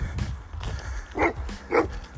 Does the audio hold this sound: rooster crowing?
no